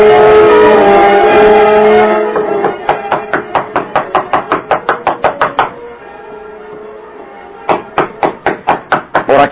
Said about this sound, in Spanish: de que el timbre no funcionara bien, los agentes de la policía llamaban insistentemente con los nudillos sobre la puerta.